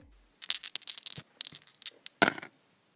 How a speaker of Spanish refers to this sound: Nuevamente lancemos los dados y cayeron en